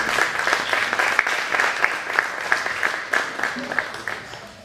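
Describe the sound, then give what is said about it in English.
A crowd applauds steadily, many hands clapping in a dense, continuous wash with a few sharper individual claps standing out, holding a fairly even loudness throughout. “Come on, just give a big clap offering for”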